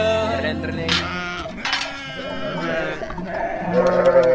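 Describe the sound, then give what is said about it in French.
Several sheep bleat in overlapping, wavering cries, while small bells clink and jingle steadily underneath, like a flock with bells being led out to graze. “Je mène paître mes moutons dans un joli bruit de sonaille.”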